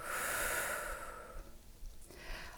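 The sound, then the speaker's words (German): A long, audible exhale through the mouth after a deep breath into the chest is held for a short moment, a soft breathy rush that fades out over about a second, followed by quiet background noise and a faint short breath near the end. “Halten den Atem für einen kurzen Moment an, Atemfülle und atmen dann lösend durch den Mund aus.”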